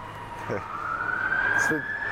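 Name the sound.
police siren passing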